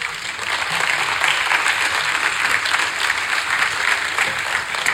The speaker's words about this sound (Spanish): Un aplauso para el rey.